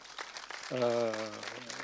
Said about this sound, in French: En tout cas, je pense qu'il y a quelqu'un à applaudir ce soir, c'est vraiment euh, voilà, les deux qui représentent euh, cette association.